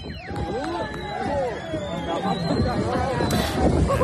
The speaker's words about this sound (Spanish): En ese momento, un grupo de jóvenes que estaba en la playa ha comenzado a jalear y a vitorear a los narcos mientras arremetían contra los guardias.